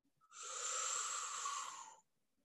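A group of children draw one long, deep breath in together on the leader's cue word 'angin' (wind), a steady airy rush that swells quickly, holds for under two seconds, then stops. No one speaks.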